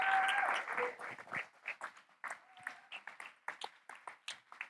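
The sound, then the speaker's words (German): An audience applauds to welcome a woman invited onto the stage: a dense burst of clapping at the start thins into scattered individual claps that gradually fade out over a few seconds, with no talking. “Ihr dürft ihr mal einen herzlichen Applaus geben.”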